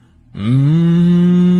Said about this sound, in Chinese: 可是那牛呢就不肯走了，哞哞的叫个不停。